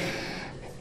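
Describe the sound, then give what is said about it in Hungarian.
A dog pants, a brief burst of quick, breathy huffs that softens slightly toward the end, with no voices; an assistance dog sitting in a woman's lap at a dog-friendly museum in Óbuda, Hungary. “A nagy Isten, ha lihegést hallanak, az a kutya.”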